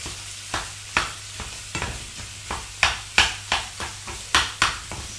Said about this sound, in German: So, wo ist mein Pfannenwender? Hier. Und jetzt das Hackfleisch schön klein machen.